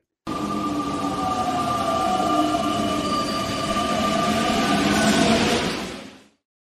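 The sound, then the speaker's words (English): A loud train sound effect rumbles steadily for about six seconds, with grinding rail noise and sustained metallic whining tones riding over the roar before it cuts off abruptly. “So let's get into our next segment, uh, Chicago Loop, with a very special guest. So let's hop on the train.”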